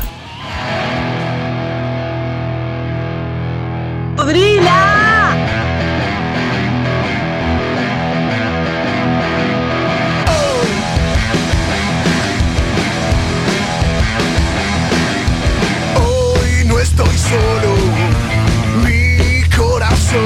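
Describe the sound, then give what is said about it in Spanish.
A loud rock track with heavily distorted guitars plays steadily throughout, swelling into a fuller, brighter band sound about halfway through, with no voices talking over it. “Suena así, … con rock.”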